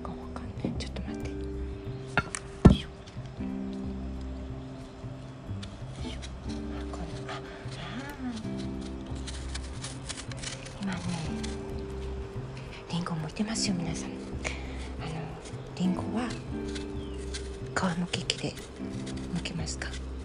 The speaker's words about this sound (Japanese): で今からえー、っとこの小さな小さなもう手の中でね握ってしまえるようなりんごさんの皮を剥きますでも皆さんに聞こえるように。